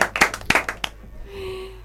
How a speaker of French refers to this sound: plutôt pour qui ici ça a marché Applaudissons. Voilà, merci.